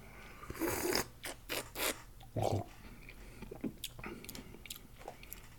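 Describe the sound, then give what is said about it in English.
Wet slurping and sipping sounds: a few airy bursts drawn through the lips, then softer smacking and swishing in the mouth as a deep ruby red wine is tasted, with no talking. “We're going to have a sip here.”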